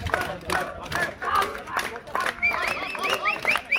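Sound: crowd applauding and cheering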